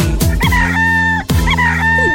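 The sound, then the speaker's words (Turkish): A rooster crows twice in quick succession, each call loud, with a steady musical backing sustained underneath, in a song about the roosters on a farm. “bir çiftliği var Çiftliğinde horozları var”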